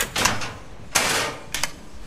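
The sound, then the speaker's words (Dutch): A few sharp mechanical clacks of restraint buckles snapping shut as a candidate is clicked into an examination chair, spaced out over two seconds with a quick double click near the end, with no one talking. “Er wordt nu een eh, ja, beetje donker type in de stoel geklikt. U hoort dat.”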